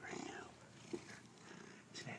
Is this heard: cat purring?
yes